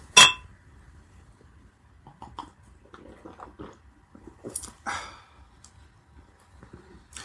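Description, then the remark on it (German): Glasses of Früh Kölsch beer clink together once in a bright, ringing toast, followed by quiet sips, soft sighs and faint handling noises, with a second brief clatter a few seconds later. “Prost. Prost.”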